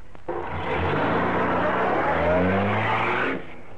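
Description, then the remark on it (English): A car engine revs hard and accelerates as its occupants flee from the police, its pitch climbing in rising harmonic sweeps, loud for about three seconds before cutting off abruptly. “There's a car coming.”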